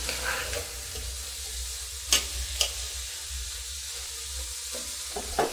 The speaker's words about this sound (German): Kann also gut Viertelstunde, 20 Minuten dauern. Dazu brauchen wir dann auch einen Holzlöffel zum Umrühren. Ihr hört es ein bisschen